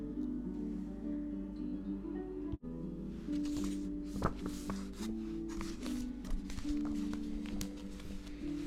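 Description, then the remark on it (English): Paper rustles and crinkles in a series of short, irregular bursts as pages are handled, over a steady low tonal hum, with no one talking. “It's nice to hear the paper, right?”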